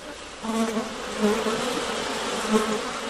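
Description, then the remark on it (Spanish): A steady insect buzz, like a fly, drones continuously with a few brief swells in pitch and loudness, no voices present. “Es así como el poeta japonés Isa Kobayashi, en el siglo XVIII, atrapó la experiencia sencilla pero profunda del zumbido de una mosca en la vastedad de una noche de insomnio.”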